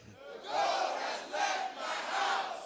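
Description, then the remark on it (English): A large audience shouts out loud together in three sustained bursts, a roaring mass of voices swelling and dipping with a rhythmic chant-like pattern. “And for the last time, let's shout it out loud.”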